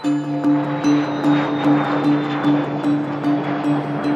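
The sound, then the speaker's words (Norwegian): A steady airplane engine drone on a flight to Alicante, Spain, with a low tonal hum and a broad rushing roar, holding constant and fairly loud throughout, with no voices. “vi satte oss på et fly til Spania.”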